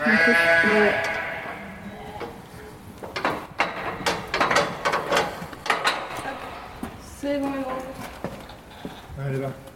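A dairy ewe on a dairy sheep farm bleats loudly at the start, followed by a few more bleats later, amid clattering and mechanical knocking sounds.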